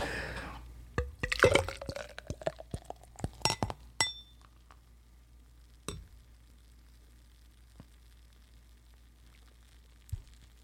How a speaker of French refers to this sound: Alors là, tu me l'as servi, j'ai 5 euh, doigts de mousse.